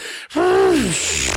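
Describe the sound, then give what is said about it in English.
A voice makes a wheezy, reedy imitation of harmonica playing: one sustained breathy tone that bends upward, holds, then slides down, loud, with no talking. “Well, when I play the harmonica, it sounds like this.”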